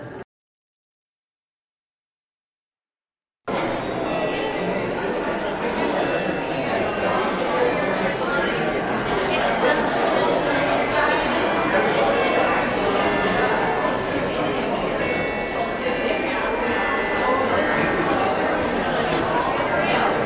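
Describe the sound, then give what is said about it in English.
People at a church worship service chatting and greeting one another at once, a steady overlapping murmur of many voices, moderately loud and continuous after a brief silent start. “So now you may greet one another and then listen for the chimes.”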